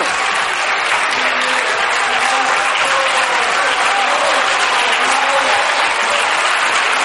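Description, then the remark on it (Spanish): Sustained applause from members of the Partido Popular (PP) fills the whole stretch, a dense, steady wash of many hands clapping at even loudness, with a faint murmur of voices underneath. “Sí, sí, sí, eh, están aplaudiendo, claro, los del PP, porque es que eh, barbaridades, pues mira, esta, esta una de ellas.”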